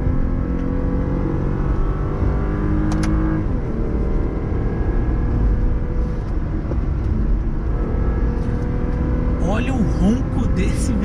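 A car engine runs loud at high revs in second gear, in sport mode with manual shifting. Its droning pitch climbs and holds steady before shifting again near the end as the driver tries to downshift at very high RPM. Constant road rumble runs underneath.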